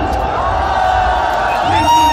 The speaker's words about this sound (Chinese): 欢迎主持人，能不能再响亮一点？运动员欢呼声！